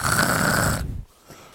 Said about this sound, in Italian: La mia tigre Ginny,